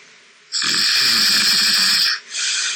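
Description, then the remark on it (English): A pet snores loudly, a long harsh, wheezy inhale filling about a second and a half, then a brief pause before another raspy snore begins. No one speaks. “So it goes like all different snores.”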